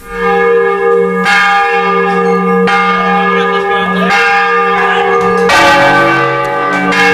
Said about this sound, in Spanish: No sé si han notado la sutil diferencia entre el toque de la primera campana y la segunda. Esas que escuchan en notas más graves y solemnes no solo son campanas más grandes